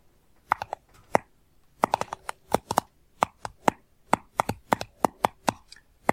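Sharp tapping on a speculoos spread package, around two dozen crisp knocks in quick irregular bursts with brief pauses, loud and dry with no voices.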